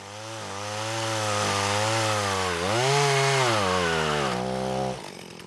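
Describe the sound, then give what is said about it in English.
A chainsaw runs steadily through wood for about five seconds at Scotty Creek, bucking felled trees into about eight-foot lengths during cleanup, its loud buzzing engine tone dipping and rising as it bites into a log, then cutting off near the end. “Yeah, so we were bucking the trees up into about eight foot lengths.”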